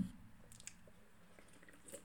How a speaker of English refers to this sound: Excuse the random slurps halfway through